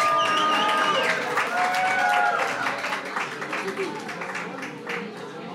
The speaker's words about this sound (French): Le bar commun, c'est un bar associatif d'un genre un peu spécial qui ouvre ses portes au public ce soir. En public, s'il vous plaît. Pouvez-vous faire un peu de bruit, public